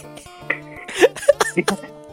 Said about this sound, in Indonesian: Anjir batuk-batuk dulu bangsa, tahi